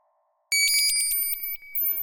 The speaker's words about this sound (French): Le réveil sonne. Il ne s'arrête pas.